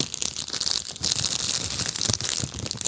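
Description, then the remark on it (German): Continuous crinkling and rustling of paper gift wrap being pulled open from a Christmas present, a bright, crackly texture with irregular sharp crackles throughout, with no voices. “bisschen Knistergeräusch. Ein bisschen ASMR, ne?”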